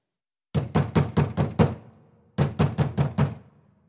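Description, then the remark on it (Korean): Two quick bursts of loud, forceful knocking on a door, about five or six heavy raps each, separated by a brief pause, with no voices. “홈즈가 심각한 표정으로 말을 이으려는데 갑자기 문을 두드리는 소리가 요란하게 들려왔다.”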